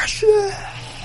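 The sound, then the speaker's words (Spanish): A voice mimics the buildup to a sneeze: a quick breathy intake followed by a short, strained, rising vocal note that trails off without the sneeze arriving, fairly loud. “Como que va a estornudar. Pero desde esa gente que estornuda así de.”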